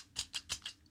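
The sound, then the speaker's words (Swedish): Four crisp mechanical clicks from a handheld tally counter used to count swear words, pressed in a quick, fairly even rhythm, with no talking during the clicks. “då fick jag en sån här klickare som jag ska klicka varje gång.”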